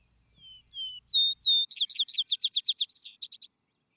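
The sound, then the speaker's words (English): A vesper bird sings clearly at twilight in open pasture fields where cattle and sheep graze, opening with a few thin whistled notes before breaking into a rapid, rhythmic run of bright trilled phrases, then a short closing flourish. “Go to those broad, smooth, uplying fields where the cattle and sheep are grazing, and sit down in the twilight on one of these warm, clean stones, and listen to his song.”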